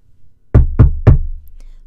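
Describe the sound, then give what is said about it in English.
Three firm, evenly spaced knocks on a wooden door, loud, each with a deep thud and a short ringing tail, followed by quiet. “Finally, a knock at the door.”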